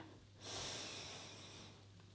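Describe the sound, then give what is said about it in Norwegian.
A single long, deep breath drawn in through the nose during a guided breathing exercise, a soft airy hiss lasting just over a second, fairly quiet, with no talking. “Pust godt inn med nesa.”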